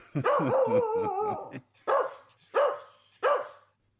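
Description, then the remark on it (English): A small Shih Tzu dog barks: a longer, wavering yappy outburst followed by three sharp, evenly spaced barks, loud and clear with no one talking. “I'm sure they would be happy to hear it is the Shih Tzu.”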